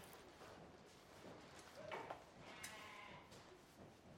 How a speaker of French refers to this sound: Alors, beaucoup d'entre vous ont entendu des moutons. Euh, certains ont entendu un seul mouton. Certains ont entendu plusieurs. Et en fait, on a plus ou moins 4000 moutons qui sont là, euh, qu'on a pu entendre au loin, qui crient, qui bellent.